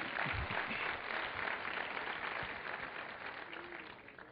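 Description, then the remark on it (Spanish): A crowd applauds steadily, a dense wash of many hands clapping at once that holds fairly loud for several seconds before gradually tapering off a little, with no voices standing out. “Hubiera deseado que ni me aplaudieran porque lo que sigue no, no está todavía tan bueno.”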